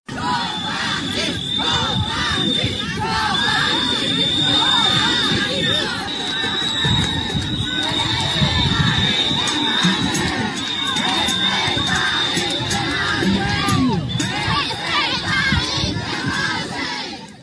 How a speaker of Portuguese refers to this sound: O som que você ouve ao fundo, com gritos de covarde e respeita a enfermagem, são do protesto ocorrido nesta segunda-feira na esplanada dos ministérios em Brasília, e as palavras de ordem foram direcionadas à Polícia Militar do Distrito Federal.